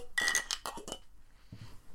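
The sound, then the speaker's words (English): Beer bottles clink together in a toast over the last beer of the season, a quick cluster of bright glassy knocks that ring briefly, followed by a softer low clunk. No one speaks. “Last beer of season two, guys. Hello. I can't open it. Give me a second. Cheers. Cheers. Cheers.”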